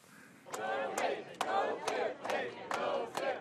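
Hundreds of Google employees outside Google's headquarters in California chant slogans against President Trump in rhythmic unison, protesting the entry ban, loud voices rising in a steady repeating cadence with sharp accented beats about every half second, a dense roar of many people underneath.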